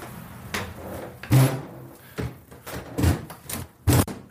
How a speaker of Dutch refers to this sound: Zo. Nou, de deur klemt lekker, zoals je hoorde.